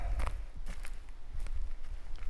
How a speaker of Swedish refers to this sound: jag och Robert är ute och går i skogen. Mm, kanske man hör att det knastrar härligt och blåser i träna